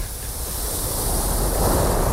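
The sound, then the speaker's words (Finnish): Surf in Finland rushes in with a steady, broad wash of water noise that swells slightly louder toward the end, enveloping, splashing onto people and wetting white trousers, with a windy hiss and no voices. “miten käy valkoisten housujen, että kun pussi menee sitä ohi, että roiskuuko, äh, roiskuuko vesi”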